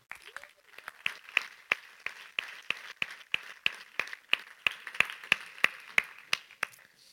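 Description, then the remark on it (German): An audience in Bern applauds warmly to welcome guests onto a stage, many hands clapping in a dense, steady patter with some sharper claps standing out, sustained at an even level for several seconds without any voices. “Lass uns sie mit einem herzlichen Applaus auf der Bühne begrüßen.”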